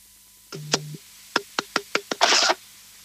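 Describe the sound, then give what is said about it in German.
A caller makes a series of sharp knocking noises over a phone line into a radio call-in show: about six quick raps in an uneven rhythm, ending in a brief scraping burst, fairly loud with no one speaking. “macht Klopfgeräusche”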